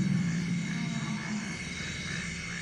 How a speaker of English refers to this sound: this next soundscape comes from the Congo. These are African forest elephants. And some of the sounds you can barely hear because their frequency is so low. They're literally, literally at the bottom end of human hearing range and even below that.